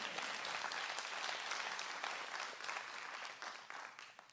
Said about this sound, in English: I appreciate the five people who clapped.